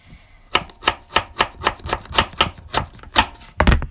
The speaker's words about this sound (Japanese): 今日はねえっとちょっとねなすなすびをちょっと用意してるのでなすびをねちょっと切っていきたいと思います